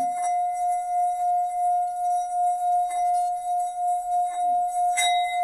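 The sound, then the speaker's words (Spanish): A struck singing bowl hums with a strong, steady ringing tone that sustains throughout, with a few faint taps and a brighter strike near the end adding shimmering overtones. “Este, exactamente el de este cuenco.”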